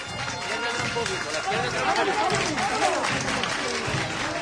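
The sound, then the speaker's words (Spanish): A dense, steady wash of clapping from a large crowd at a street procession in heavy rain, applauding as the procession speeds up its pace, with many voices shouting and calling over it, loud and continuous throughout. “Se aplaude esa decisión de haber salido y de ahora acelerar el paso sin perder la calma.”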